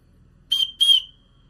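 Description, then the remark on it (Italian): Two short, shrill whistle blasts from a clay water whistle blown without water inside, each steady and piercing with a breathy edge, the second slightly longer and trailing off, with no talking. “Allora, senza acqua, cioè dalla parte dove usciva il latte,”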